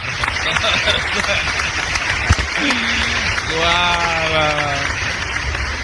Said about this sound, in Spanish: Bueno, no nos queda nada más sino darle un aplauso